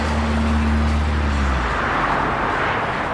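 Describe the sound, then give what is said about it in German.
An old Volkswagen bus drives steadily along an American freeway on a trip from Oakland to Michigan's Upper Peninsula, its engine droning low with a harmonic hum that fades after a moment into a broad, constant rush of road and wind noise, fairly loud. “Auf vielen Autofahrten mit meinem alten VW-Bus von Oakland, wo ich wohne, in die Upper Peninsula von Michigan, 3500 Kilometer, war ich immer wieder aufs Neue von diesem Gefühl erfasst.”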